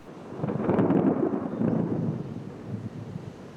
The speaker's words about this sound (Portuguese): E a tempestade cai